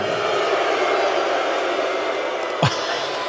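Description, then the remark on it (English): An arena crowd at the General Motors Center in Oshawa, Ontario, Canada, boos before a TNA Heavyweight Championship match in a dense, steady roar that fills the whole stretch, broken once near the end by a brief sharp thump; no clear speech rises above it. “are they booing Earl?”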